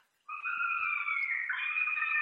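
A fisher cat behind a house lets out a sustained, piercing scream that starts abruptly and holds steady for about two seconds, rising slightly in pitch near the end, loud and unaccompanied by any voices.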